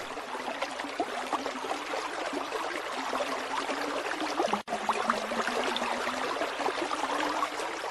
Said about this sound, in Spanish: Después de un largo recorrido en silencio, escuché el rumor de un arroyo.